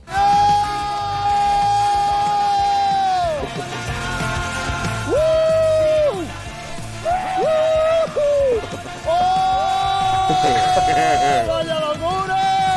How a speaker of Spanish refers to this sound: el primer grito suena como más eh, apretado. Luego los Luego se abren todos los esfínteres del cuerpo.